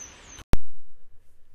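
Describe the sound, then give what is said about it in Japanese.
A thin, high-pitched peep from a baby bird chick walking just outside a kitchen, with its parent bird nearby, held briefly and fairly faint, followed by a sharp click and then quiet background noise. “あの最初は本当あのなんか本当に台所の外ですぐ外でなんか泣いているのであのー、ふっと見たらひな鳥が歩いててでその近くを親鳥がこう寄り添うように歩いてたんですね”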